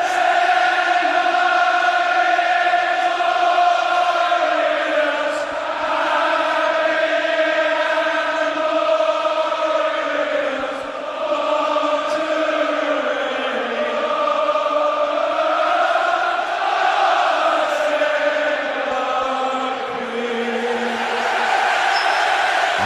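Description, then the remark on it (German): A huge crowd of English football fans sings their national anthem in unison, a loud, sustained chorus of massed voices holding long melodic notes that swell and dip slowly, with no talking over it. “Die Engländer singen sicherlich auch zahlreich heute Abend wieder ihre Nationalhymne in der Münchner Allianz Arena.”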